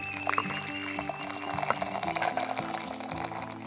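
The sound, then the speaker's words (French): Hot lemon herbal tea poured into a cup in a small kitchen, a steady stream with a gurgling, shifting tone that lasts a few seconds, no voices. “J'ai installé mes micros dans leur cuisinette Elles m'ont servi une tisane au citron.”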